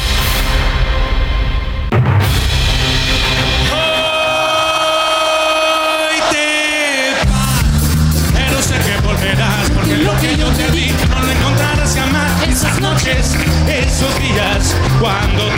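A loud, upbeat Mexican ska song, opening with sustained brassy chords that break into a fast, driving, choppy rhythm with busy percussion, filling the whole recording up close.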